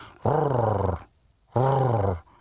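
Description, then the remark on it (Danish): A person imitates a dachshund growling: two loud, throaty growls, each held for most of a second, separated by a brief silent pause. “Nej, det er gravhundlyden.”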